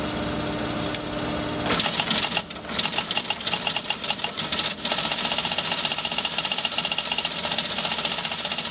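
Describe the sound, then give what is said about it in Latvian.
A teletype machine printing news in a small room on the top floor of a radio building, with a low mechanical hum that gives way to a fast, steady clatter of rapid keystrikes running continuously with no voices. “Šāda skaņa pirms gadiem 40-50 nepārtraukti bija dzirdama radiomājas pašā augšējā stāvā, kur atsevišķi no ziņu redakcijas darbiniekiem mazā skabūzītī teletaipa mašīna drukāja ziņas.”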